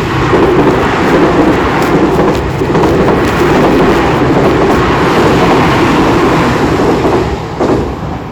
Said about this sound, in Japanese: めっちゃ電車来るな。